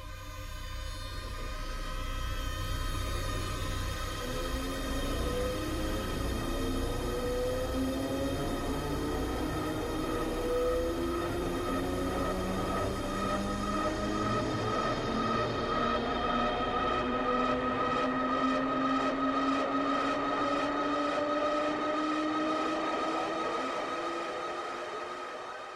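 A robotic powering-up sound in a film score represents a character initializing, as if the human were being replaced by the robot. Layered electronic tones glide steadily upward over a low rumble and sustained drone, building for about twenty-five seconds at constant loudness, with no voices.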